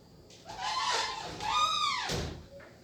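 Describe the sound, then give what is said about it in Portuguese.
A window slides shut with a squeaky, scraping glide and a soft knock, followed right after by a curtain being drawn, moderately quiet with no one talking, in a small studio apartment (kitnet) in Sorocaba, Brazil, while it is raining. “Deu pra ouvir o fechão as janelas e logo em seguida a cortina.”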